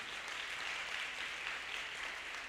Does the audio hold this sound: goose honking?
no